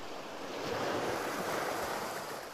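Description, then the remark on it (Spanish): Ocean waves crash against rocks in a steady, rushing roar that swells slightly midway, loud with a hiss of spray and no voices. “Porque nuestro interior es como estas olas que constantemente están en ruido.”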